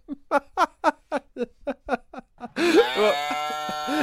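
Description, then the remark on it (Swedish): A man lets out a drawn-out, loud imitation of a cow's moo, right after a quick run of about ten rhythmic, chuckling bursts of breathy laughter. “är det inte en ko han försöker låta som?”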